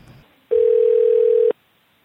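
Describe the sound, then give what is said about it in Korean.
A single one-second burst of a steady telephone ringback tone, loud, rising out of faint background noise and then cutting off cleanly, as a Korean talk show places a call to the head of the Ppomppu-dang club. “뽐뿌당 당주님을 한번 연결을 해보는 게 어떨까 싶은데요.”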